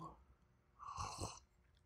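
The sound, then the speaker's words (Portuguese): A single slurping sip of hot chamomile tea, a brief airy draw of liquid with soft mouth noise, heard on its own. “Mas eu vou tomar um golinho do meu chazinho de camomila só para dar umas boas-vindas para vocês.”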